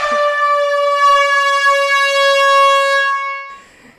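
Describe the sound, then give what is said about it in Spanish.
A loud, steady siren blares with a rich stack of harmonics, holding one sustained pitch for about three and a half seconds before cutting off abruptly. No one speaks. “Y aquí pon, la sirena, Jordi, bien fuerte.”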